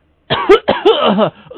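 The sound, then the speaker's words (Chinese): Two harsh, rasping coughs in quick succession, loud and wheezy, followed by a brief raspy tail, from a patient with a severe cough at a doctor's clinic. No one speaks. “大夫，我咳嗽的很很厉害呀”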